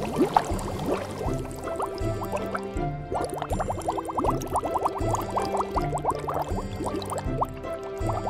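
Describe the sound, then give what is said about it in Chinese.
Continuous underwater bubbling from someone holding their breath under water in a cold pool: quick, rising gurgles and burbles tumble over one another at a steady medium level, set against a low, sustained tonal hum, with no voices. “仙女阿妈会在冷水池里玩好多游戏，哗啦，在瀑布底下修炼，啪嗒啪嗒，下巴靠在脸盆上打水前进，啵噜噜啵噜噜，在水底憋气。”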